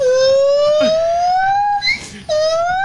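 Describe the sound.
A voice imitates a wailing alarm siren, one long steady rising tone held for nearly two seconds, a brief break, then the wail picks up again loudly.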